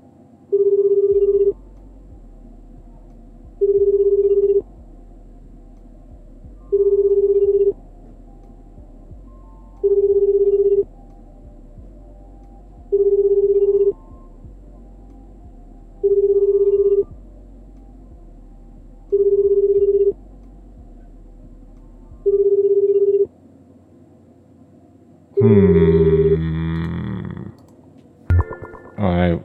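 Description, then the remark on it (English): A telephone call placed through an alternative dialing machine rings over and over, eight steady tones spaced about every two and a half seconds through an earpiece, until the line clicks and a burst of louder sound cuts in at the end. “It's making a ringing noise, but it could be faking us.”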